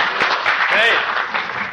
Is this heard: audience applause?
yes